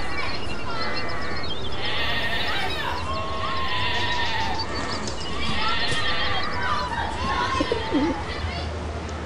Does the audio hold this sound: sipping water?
no